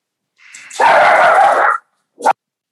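A dog lets out a drawn-out, whining bark lasting about a second, then a short sharp yip after a brief pause; fairly loud, with no talking.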